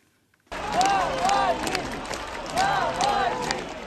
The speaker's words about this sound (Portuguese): Houve aplausos e gritos com o nome de Navalny e não há guerra na Ucrânia. Milhares de pessoas desafiaram as autoridades russas que avisaram que não tolerariam protestos não autorizados.